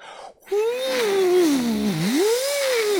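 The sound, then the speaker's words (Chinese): A steady, eerie howl of wind rising outside a guesthouse, wailing at a mid pitch, sagging lower around the middle, then rising again, loud and continuous for about two and a half seconds with no talking. “呼呼呼的风声啊，听起来就像狼嚎鬼嚎。”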